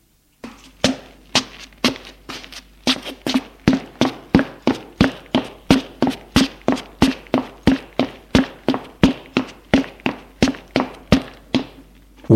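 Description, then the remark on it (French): Footsteps of a man hesitantly climbing a large staircase from the entrance hall to the upper floor of a house, a long run of firm, evenly spaced treads at a steady unhurried pace, with no voices. “Hésitant, il monte à l'étage.”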